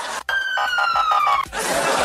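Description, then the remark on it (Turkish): A single police siren wail sounds for about a second, a steady high tone sliding slowly downward, loud, framed by bursts of noisy background sound before and after. “Hani böyle bir de duymadığın zaman siren şey.”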